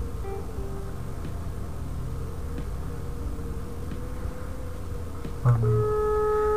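A faint, steady phone ringback tone hums through background hiss while a call waits to connect, then a louder, clearer electronic tone cuts in near the end.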